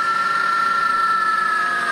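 A futuristic synthetic electric car sound designed by Hans Zimmer: a steady, sustained electronic tone with a slight eerie shimmer, fairly loud and continuous throughout, with no voices.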